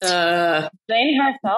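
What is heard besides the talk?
cat meowing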